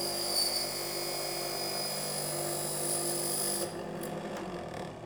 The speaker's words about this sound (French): Donc je pars de ma plaque de métal que j'ai laminée bien plate et on va aller en découper un morceau. Donc on va utiliser les scies euh, dont je vous ai parlé au tout début, qui ont été remises aux normes.